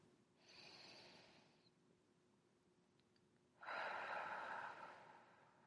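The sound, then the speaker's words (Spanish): A slow, deep breath during a seated relaxation exercise with eyes closed, drawn in and then pushed out, two broad airy whooshes separated by a short pause, the exhale louder and fuller, with no talking. “Voy a hacer una respiración profunda.”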